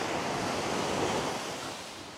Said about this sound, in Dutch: Luister ook gewoon eens rustig. Luister eens naar die oceaan die gewoon altijd maar doorgaat. Dus er komt altijd weer een nieuwe golf. En één in de zoveel golven is wat zwaarder dan de ander. Ja, dat was hem weer.